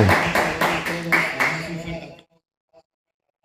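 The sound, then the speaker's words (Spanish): An audience applauds loudly for all the nations for about two seconds, with voices mingling in the noise, before the sound cuts off abruptly into near silence with only a couple of faint ticks. “Les damos un fuerte aplauso a todas las naciones.”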